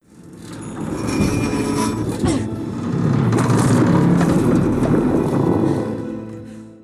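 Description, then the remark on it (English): A boat's hull screeches and groans during a hurricane, with high metallic squeals drawn out over a loud, continuous rumble of churning noise that swells and holds for several seconds. “And there's a few other scenes where there's this screeching of the boat at like during the hurricane scenes and it works incredibly well.”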